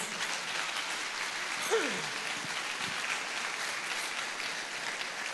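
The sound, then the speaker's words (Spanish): An audience applauds to give glory to God, a dense, even wash of clapping that holds at a constant loudness throughout, with a brief whistle-like sweep rising near the start. “Si es así, dale un aplauso de gloria a nuestro Dios.”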